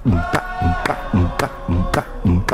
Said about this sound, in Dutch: er wordt eh, eh, geklapt met de handen. En dat is voor ons belangrijk dat het niet op de beat gaat, maar achter Hier heb je die klap, hè?